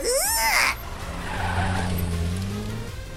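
A loud, sharp burst of car tires squealing with wavering high pitch, then a steady engine drone from a video-game race car that continues to the end, on the second lap of a closely contested two-player race.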